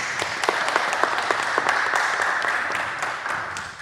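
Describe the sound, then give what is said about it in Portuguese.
The audience at a live recorded show applauds steadily, many hands clapping in a dense, crackling wash with sharper individual claps popping through, holding fairly loud throughout before tapering slightly at the end. “Uma salva de palmas para vocês todos.”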